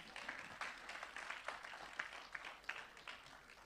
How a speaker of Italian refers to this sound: facciamo un applauso